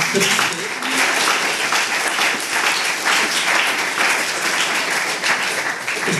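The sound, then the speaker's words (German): Steady audience applause fills the whole stretch, a dense, bright wash of many hands clapping at a constant, fairly loud level, with a faint murmur of voices underneath. “Da hat einfach Applaus verdient”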